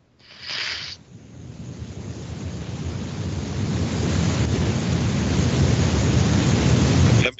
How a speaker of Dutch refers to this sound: En het draait daar nogal. Rustig. Ja, winderig.